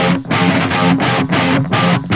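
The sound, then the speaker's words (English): Muffled rhythm guitars, run through a low pass filter, chug in steady repeated chord bursts, their bright top end rolled off so they sound dark. No voices are present. “What we did to kind of dial back this section and make it feel a little bit less aggressive is there's a low pass filter on here which sounds like this.”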